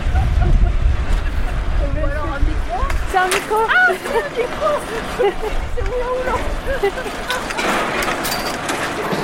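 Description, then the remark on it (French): A ski drag lift's machinery rumbles steadily, a low mechanical drone that runs throughout while people talk briefly over it. “Les bruits de monter les skis Ouais.”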